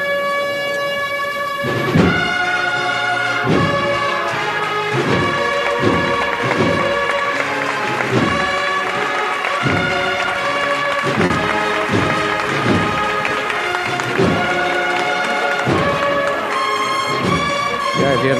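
A brass band plays the Marcha Real, Spain's royal march, in the street during a religious brotherhood's procession in Triana: sustained horns over steady, regular drum beats. It sounds loud and continuous throughout, with no one talking.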